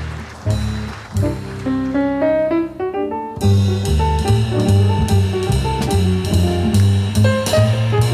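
Live jazz piano plays a few loud, ringing phrases on its own, then the full band crashes in with drums and cymbals and keeps swinging steadily. No one speaks.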